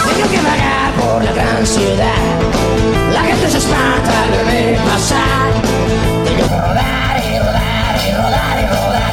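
A loud live rock song plays continuously, with full band instrumentation and strained, shouted-sounding vocals. The sound is dense and steady, and it thins slightly toward the end.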